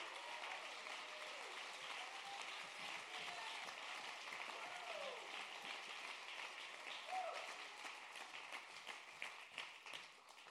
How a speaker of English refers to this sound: How many of you know he's good? Let's stand up and clap our hands and praise him because he's good. Woo!